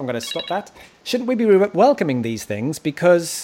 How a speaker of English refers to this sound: that's my phone going off.